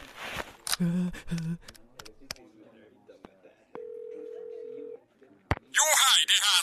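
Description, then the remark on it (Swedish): A phone number is dialed to call a lawyer as a quick series of short, clipped tone beeps, followed by a steady dial-type tone and a ringing burst, with some background voices at the start. “Jag ringer vår advokat genast.”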